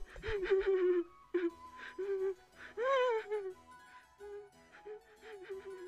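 A voice imitates a giraffe sniffling and whimpering softly on a sidewalk: a string of short, wavering whimpers, moderately loud, with brief pauses between them.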